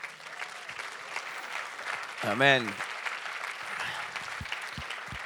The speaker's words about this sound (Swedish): Kan du stå upp så vi får ge dig en applåd?